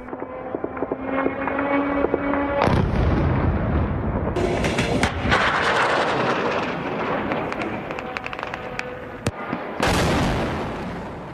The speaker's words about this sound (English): Well, what you heard just there was an Iranian suicide drone being used in Kiev, the capital of Ukraine, um, attacking civilian populations used by the Russians uh, against Ukraine.